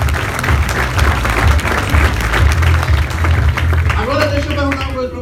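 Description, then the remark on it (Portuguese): A crowd bursts into loud, sustained applause, dense clapping filling the whole stretch, with a voice whooping over it near the end. “Merece uma salva de palmas aí.”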